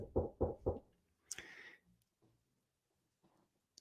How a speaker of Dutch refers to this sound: Dan, zit je eten klaar te maken en dan komt straks eh, bezoek. Hè, er komt familie langs, die komt bij je eten. Eh, en dan op een gegeven moment hoor je geklop op de deur.